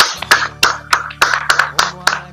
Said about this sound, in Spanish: ¿Dónde está el de aplausos? Ay, se me perdió la hojita de aplausos.